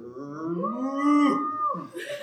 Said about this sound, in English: Listen to the bass, as the one on the bottom where the bullfrog croaks and the hippopotamus moans and groans with a big to do, and the old cow just goes moo.